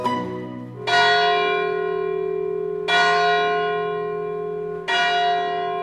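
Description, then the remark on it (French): Church bells ring out in slow, evenly spaced strokes, three loud rich clangs about two seconds apart, each one's tone lingering and overlapping the next, with no voices. “Ce ne sont pas les cloches de Pâques, mais bien les fèves de l'Épiphanie qui nous intéressent aujourd'hui.”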